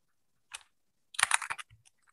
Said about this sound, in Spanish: Bajo la pantalla, estoy tranquilito, tecleo un par de cositas para poner ahí.